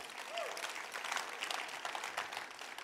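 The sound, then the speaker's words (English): Audience applause, a dense, steady wash of many hands clapping at once, moderately loud and sustained, with a brief vocal sound near the start. “Give him a little round of applause.”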